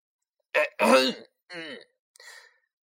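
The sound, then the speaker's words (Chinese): A person clears their throat in four rough, gravelly bursts: two quick strong ones, then a shorter, more voiced one and a faint final rasp. No speech. “然后，我清了清嗓子，大声的喊道”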